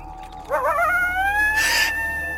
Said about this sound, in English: Dear Lord! Just a coyote, ma'am. I know that. It just startled me, is all.